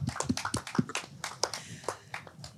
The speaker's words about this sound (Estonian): suur aplaus neile